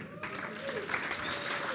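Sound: audience applause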